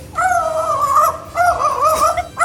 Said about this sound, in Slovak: A teda aj pán vták ju má teraz za pani mamu a myslí si, že on sám je pes. No, presne takto znie štekajúci vták.